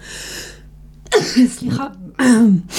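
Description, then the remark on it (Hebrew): Several sharp bursts of coughing or sneezing, loud and harsh, with a short spoken word squeezed between them. “לבריאות.”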